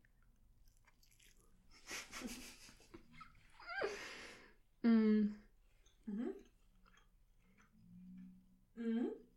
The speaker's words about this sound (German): Ich hoffe so sehr, dass man das Kauen nicht so doll hört. Ich würde ausrasten.